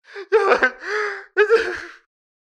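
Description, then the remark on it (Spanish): A voice puts on exaggerated, theatrical crying, as if sobbing to someone who has just answered a phone call: a few loud, wavering sobs broken by sharp gasping breaths, in three quick bursts with brief pauses between. “O sea, tú llamas y apenas te contestan la llamada, tú ya estás llorando.”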